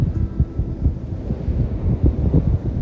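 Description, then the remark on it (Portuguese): A helicopter passes overhead, a deep, steady rumble with fast rhythmic thudding of the rotor blades that holds fairly loud for the whole stretch, with no one speaking. “A gente não pode mudar, deixa aí O helicóptero vem e a gente deixa ele passar.”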